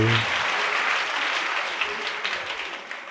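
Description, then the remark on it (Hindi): A crowd claps steadily, a dense, continuous wash of many hands that stays loud throughout and fades slightly toward the end. “तालियां तो बजाते हो लेकिन अपने जीवन में ऐसा संयम लाओ तो इन तालियों को हजार हजार धन्यवाद नहीं तो फिर तालियां बज गए हैं कर दिया तो कोई फायदा नहीं”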